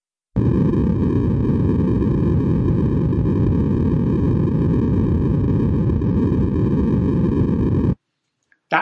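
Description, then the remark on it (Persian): Steady, loud white noise, many frequencies played together, hisses without change for about seven and a half seconds, then cuts off abruptly into near silence, with a faint sound starting again at the very end. “نویز سفید یعنی دقیقا یه صدای پس زمینه که بعد از چند دقیقه تا متوجهش هم نمیشی یه چیزی شبیه این”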